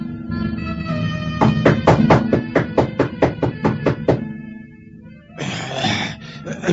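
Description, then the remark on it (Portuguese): A quick, even series of about ten sharp knocks on the wooden door of an old sorcerer's house, clearly audible over a sustained musical drone, followed by a brief rough, noisy burst. “Em poucos minutos, Saul bate à porta do velho Araches.”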